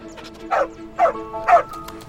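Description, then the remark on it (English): A dog barks three times in a steady rhythm, each bark short and fairly loud, with faint background noise between them. “Alto then jumped down and began to bark as if to indicate a direction to his mistress”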